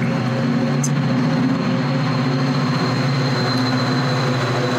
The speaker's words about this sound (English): Let the train go by